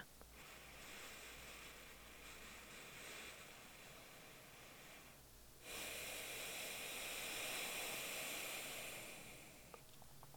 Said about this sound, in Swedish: Så om du täpper för höger näsborre med din tumme eller pekfinger och så kan du börja sluta ögonen och så börjar du andas in och ut genom vänster näsborre.